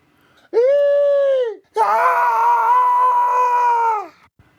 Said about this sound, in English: The shrill cry squealed and shrieked with agony.